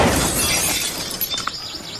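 Greenhouse glass shatters in a loud crash, the bright burst of breaking panes trailing off into scattered tinkling shards over about two seconds, with no voices.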